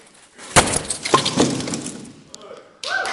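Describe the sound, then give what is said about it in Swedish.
A loud crash as a prop wall is smashed, followed by a second of crunching, clattering debris; afterwards a voice or crowd noise rises in the background. “Den ska Gud krossa ikväll.”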